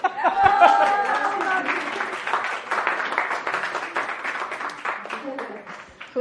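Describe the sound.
A crowd breaks into sustained applause for a family marking ten years, a dense, steady wash of many hands clapping for several seconds, with some voices and laughter mixed in at the start.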